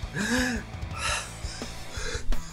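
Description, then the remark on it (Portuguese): A person imitates breathless panting: a run of raspy, wheezing gasps, some with a voiced whine, coming in quick uneven bursts. “Sabe, ofegante assim, cara.”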